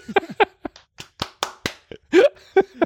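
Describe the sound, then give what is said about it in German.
Irregular hand claps, a traditional year-end Christmas and New Year's Eve clap: about ten sharp smacks with uneven spacing, mixed with bits of voiced sound and a sung or hummed tone near the end. “Ja, ich wollte dir nur die Chance geben, zum traditionellen Jahresabschluss auch noch einen traditionellen Jahresabschluss Weihnachts-Silvester-Klatscher zu machen.”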